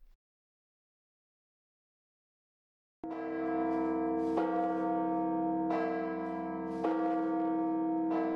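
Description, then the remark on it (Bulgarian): After a few seconds of silence, loud church bells start ringing, their rich overlapping tones struck again every second or so in a steady pealing rhythm that keeps building. “бият камбаните.”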